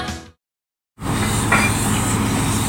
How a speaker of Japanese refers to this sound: インドネシアサルーラ地熱発電の蒸気の音その蒸気は水に帰り地中深く戻っていくそんな再生可能なエネルギーは街に明かりを灯し続けます